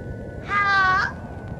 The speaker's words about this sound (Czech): je strašný, jak ten telefon zlobí, zase se to přerušilo.